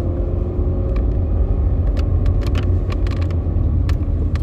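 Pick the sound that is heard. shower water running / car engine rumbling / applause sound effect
car engine rumbling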